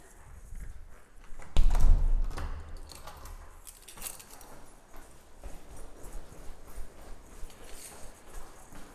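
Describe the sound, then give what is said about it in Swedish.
Quick, rhythmic footsteps of a person jogging down hard stairs in a stairwell, following a heavy low thud near the start. The steps are steady, with no one talking. “Nu ska jag gå ut i trapphuset så nu eh, kommer det bli lite tid för dig att knyta skorna. Så gör det så joggar jag ner”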